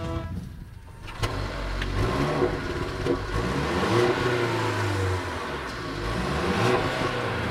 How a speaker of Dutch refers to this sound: Mag ik het geluid van deze auto horen? Ik slinger hem aan voor je.